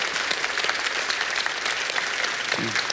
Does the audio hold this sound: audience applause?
yes